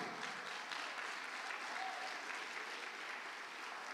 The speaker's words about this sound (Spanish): Dele palmas fuerte al Rey de la Gloria.